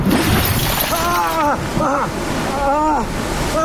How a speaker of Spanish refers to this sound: Uno de los cristales estalló en pedazos